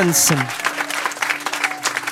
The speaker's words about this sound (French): est sur scène et vous pouvez l'applaudir.